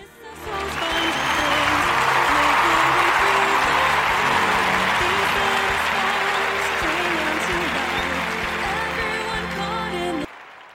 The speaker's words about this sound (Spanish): Hoy día, estos aplausos van para ti.